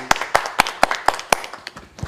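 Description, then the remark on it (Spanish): A short burst of applause for a poem just recited: around eight sharp, evenly spaced hand claps in a steady rhythm, fading slightly toward the end, with no talking over them. “Un aplauso aquí le damos a ese poema tan bonito que tiene.”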